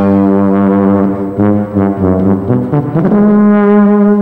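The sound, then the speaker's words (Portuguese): A tuba, the lowest-pitched instrument of the brass family, plays a loud, deep melodic line of sustained low notes, shifting pitch several times in a steady phrase, with no voices present. “A tuba é um instrumento com som mais grave da família desses instrumentos de metal.”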